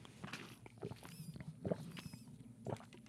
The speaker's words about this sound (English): I tried to swallow really loud so you could believe that I was actually sipping water.